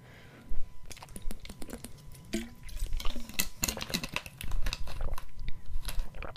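Someone sips water: a quiet run of wet mouth clicks, small slurps and swallowing sounds, irregular and close together, with no talking over them.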